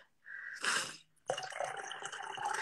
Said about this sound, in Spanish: A ver, a ver, voy a tomar un poquito de agua.